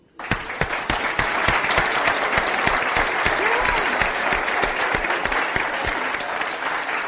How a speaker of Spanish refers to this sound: Mire, donde está sentado, un aplauso para Jaime.